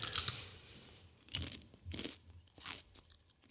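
Crisp crunching as someone bites and chews crunchy vegetable chips of celery root, parsnip and beetroot with sea salt, with several distinct bursts of crackling spaced about half a second apart and no talking.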